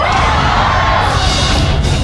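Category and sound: crowd, audience shouting and yelling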